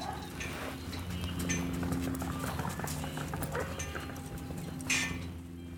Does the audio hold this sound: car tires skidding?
no